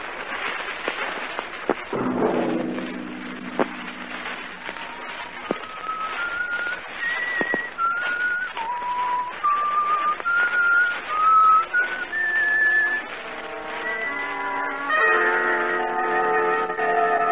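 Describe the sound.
A lone whistled melody from The Whistler, slow and eerie, drifting through sustained notes that rise and fall, with a low swelling orchestral tone underneath and no talking.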